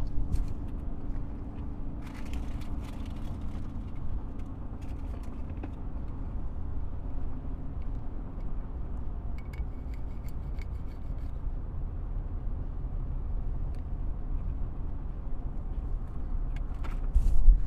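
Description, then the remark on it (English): Steady low rumble of a car driving in traffic, heard from inside the cabin, continuous and even throughout, with occasional faint clicks and rustling. No one speaks. “Let's just say there's a little bit of traffic.”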